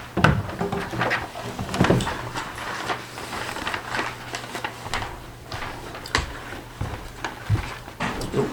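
A guitar is moved out of a chair and set down, with a string of scattered knocks, bumps and rustling handling noises over several seconds and a faint low hum underneath.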